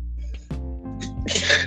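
One person sneezes: a short voiced, rising intake builds for about a second, then breaks into a loud, hissy burst.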